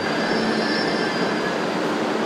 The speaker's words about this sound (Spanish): Oigan, el tren. Ah, no. Ya paró el tren.